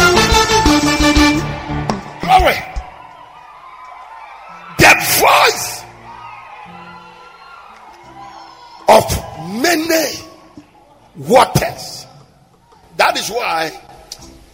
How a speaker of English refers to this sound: Come on, scream! Hallelujah!